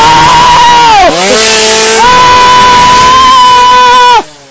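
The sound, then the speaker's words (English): A loud chainsaw engine in a maze buzzes steadily for about four seconds, dipping briefly in pitch before revving back up to a high whine, then cutting off abruptly. “Why did I get the one with the chainsaw?”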